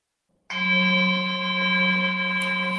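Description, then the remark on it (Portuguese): A single deep bell struck once after a brief silence, its strong low fundamental and steady overtones ringing on and sustaining without fading through the rest of the moment. “Podemos começar ainda com este ressoar profundo deste sino que, por assim dizer, vai azeitando as nossas engrenagens mentais, vai lubrificando o nosso coração com paz.”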